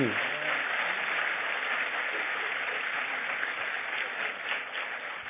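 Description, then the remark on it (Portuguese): Sustained applause from a church audience applauding the Lord, a dense, steady wash of many hands clapping at once that holds at an even level for several seconds, with no distinct individual claps standing out. “Aplauda o Senhor.”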